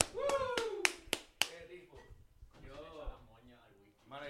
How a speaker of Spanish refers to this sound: Bravo, aplauso. Bien arrebatado.